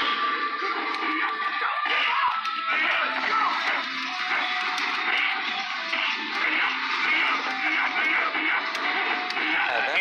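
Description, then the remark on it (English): Busy electronic audio from the Revolution X arcade game plays steadily for the whole stretch, a dense midrange wash of music and effects with occasional sharp hits, with no one speaking over it. “in the background, what you're hearing is Revolution X.”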